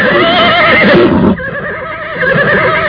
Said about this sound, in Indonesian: Seekor kuda hitam yang gagah meringki keras ketika laki-laki setengah tua itu melompat ke punggungnya.